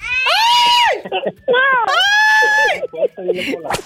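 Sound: cat meowing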